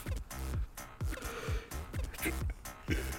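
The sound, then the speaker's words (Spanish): A breathy sneeze blended into a yawn, with nasal bursts that fall in pitch, repeating in quick succession before easing off. No one speaks. “Fue estornudo de bostezo, eso fue extraño.”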